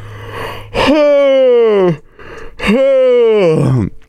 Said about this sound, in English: Oh my gosh. Oh, I'm so sorry. Whew, that was a big yawn. That was a big one.